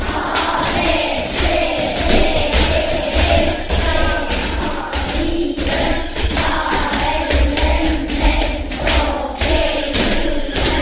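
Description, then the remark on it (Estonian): Schoolchildren in a classroom shouting and yelling at once, a loud, constant din with scattered thumps and bangs mixed in, no single voice standing out. “tavaliselt on niimoodi, kui me hästi kõvasti karjume, siis ta läheb alati punase peale”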